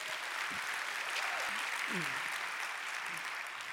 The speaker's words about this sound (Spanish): Dale un aplauso al Señor, gloria a Dios.